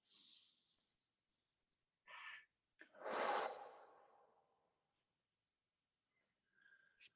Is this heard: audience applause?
no